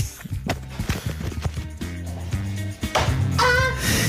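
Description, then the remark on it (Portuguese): A woman's high, wavering scream rises near the end, loud and strained, after a few seconds of clattering knocks and low thuds; no one speaks over it. “Portanto, uh, uh, já ouvimos o grito da senhora, vamos recordar o grito da senhora, não é?”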